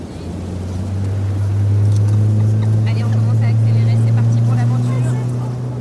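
A motorboat engine drones steadily throughout while navigating at sea, about 20 minutes into the trip: a loud, deep, continuous hum that swells slightly in the middle, with a wash of water and wind noise over the top.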